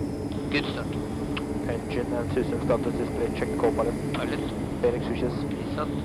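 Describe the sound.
The steady, loud drone of the engines of a Norwegian Armed Forces Hercules C-130 military transport aircraft, set to fly from Gardermoen to Jan Mayen, fills the background, a constant low rumble with muffled voices talking over it throughout.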